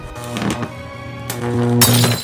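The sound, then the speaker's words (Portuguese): A lightsaber is crushed and destroyed by the force of the prison chief's hand: a low, steady electric hum carries underneath while several sharp crunching, shattering bursts break over it, the last one the loudest. “O sábio de luz de Rui é destruído com a força da mão do chefe,”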